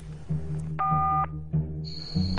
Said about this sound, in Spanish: Déjenme llamar con este teléfono móvil.